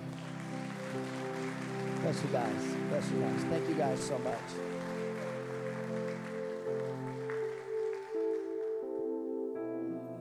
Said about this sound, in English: Can we give them a hand clap?